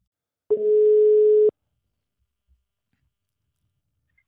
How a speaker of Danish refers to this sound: nu ringer vi til ham, så vi kan komme i gang med dagens afsnit.